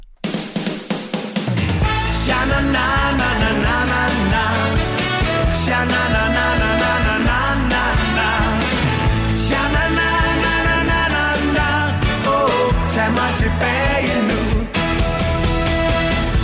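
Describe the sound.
A band's song plays loud and full, with steady driving drums, guitars and a lead singer chanting a wordless refrain, kicking in after a brief soft opening and continuing without a break.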